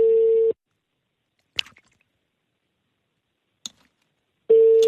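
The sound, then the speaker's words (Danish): A steady telephone tone sounds at the start and returns at the end, with a long silent gap between broken only by two brief clicks or knocks. No one answers. “Jeg vil sige til dem, hvis de tog telefonen”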